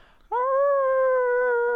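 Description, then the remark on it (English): A person's voice imitates the howl of a wolf that came up from behind in a dense cut, about two to three hundred yards away: a single sustained, steady, tonal howl that swells in quickly and holds loud for over a second, with no talking. “This third wolf comes up from behind us, and all you hear is like maybe th- two, three hundred yards.”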